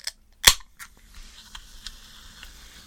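A soda can is cracked open with a sharp, loud pop after a faint click, followed by a soft fizzing hiss and a few light ticks as it settles.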